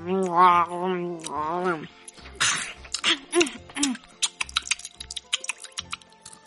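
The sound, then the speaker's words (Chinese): A drawn-out vocal sound opens, then a run of crisp, irregular crunching and smacking chewing noises follows on its own, quickening into sharp little clicks toward the end: a bear and his companions eating lunch, heard from outside a mountain cave deep in a jungle. “在丛林的深处有一个山洞，山洞外传来一阵咀嚼的声音。”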